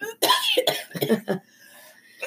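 A burst of several harsh coughs in quick succession, with throat-clearing rasp between them, then fading to quiet with a faint steady hum.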